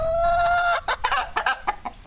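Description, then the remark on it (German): Chickens clucking on a farm in Hoburgersdorf, a district of Hohenstein, starting with a long sustained tonal call that breaks into a quick series of short, choppy clucks and squawks, with faint low background noise. “In Hoburgersdorf, einem Ortsteil von Hohenstein, wohnt Frank Eichler auf einem Hof mit Hühnern, Schafen, Eseln und Alpakas.”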